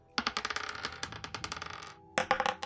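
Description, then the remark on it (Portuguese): Twenty-sided dice (D20s), one rolled by each of two players, clatter and tumble across a hard tabletop in a long rattling roll, then after a brief pause a second die bounces and skitters to a stop. Fairly crisp, no voices. “Podem rolar um D20 cada um aí.”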